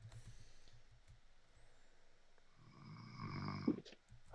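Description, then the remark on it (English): A person snores, low rumbling breaths building into one loud, drawn-out raspy snore, with no talking. “So, I th- oh, somebody fell asleep.”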